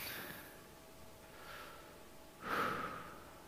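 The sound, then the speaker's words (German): An audible breath drawn in slowly through the nose, followed by a louder, airy exhale near the end, with no talking. “Vielleicht hast du heute Morgen noch gar nicht so bewusst gemerkt, aber tatsächlich Sauerstoff ist um uns und wir sind eingeladen, einzuatmen, dass der Sauerstoff an jede Stelle in unseren Körper kommen kann.”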